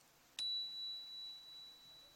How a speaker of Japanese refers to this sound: こちらの音はエナジーチャイムっていうね